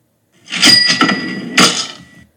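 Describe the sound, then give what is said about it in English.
A short cartoonish instant messenger door-opening sound effect: a bright, creaky swish with a brief second burst near the end, clear, lasting about two seconds with no voices. “The the message sound is so satisfying. Yeah, or the door opening.”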